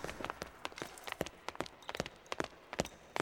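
Quick, light footsteps patter in a steady run-like rhythm, each step a soft crisp tap, heard alone and fairly quiet.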